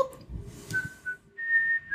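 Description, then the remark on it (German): Two clear, steady whistled notes, a short one followed by a longer, slightly higher and louder tone, against a low background rumble with no talking. “das ist das richtige Pfeifen.”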